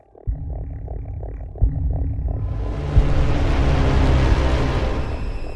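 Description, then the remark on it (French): A deep explosion aboard an airplane in flight, damaging the airframe, erupts with heavy low-frequency impacts, followed by a loud, sustained roar and crackling rumble that swells and continues without any voices. “Une explosion endommage toute la charpente, sauf le plafond de cabine.”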